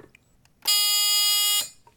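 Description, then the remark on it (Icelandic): A single loud, steady team buzzer in a quiz game blares for about a second, a harsh sustained tone with rich stacked harmonics that sounds somewhat like a foghorn, then cuts off abruptly. “Þetta er nú svolítið líkt þokulúðri”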